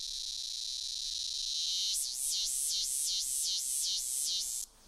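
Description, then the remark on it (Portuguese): A loud, continuous drone of a cicada, a species widespread and abundant across South America, with no voices, building into a rapid wavering pulse about halfway through, rising and falling six or seven times before stopping abruptly. “realmente vai falar, ah, já ouvi essa cigarra.”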